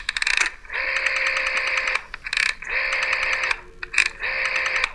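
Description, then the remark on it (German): The rotary dial of an analog telephone is turned and whirs back three times, each return a steady mechanical buzz lasting about a second, preceded by short ratcheting clicks. Clear, with no voices. “Und das ist die Wählscheibe an einem analogen Telefon.”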